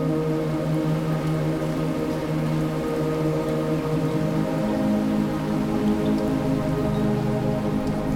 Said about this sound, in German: Schließ für einen Moment die Augen und lausche dem Lied des peitschenden Regens.